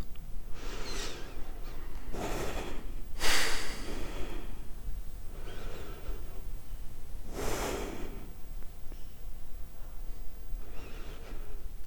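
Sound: deep breaths taken together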